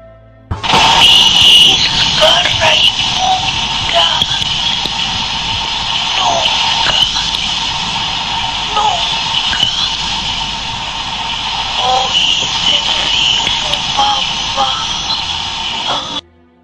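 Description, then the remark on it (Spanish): A psychophony recording said to capture a girl's voice: a loud, steady wash of hissing static runs for about sixteen seconds, with faint, indistinct voice-like fragments surfacing now and then beneath the noise. “Bueno, entonces les dejo la psicofonía para que escuchen como dice la niña.”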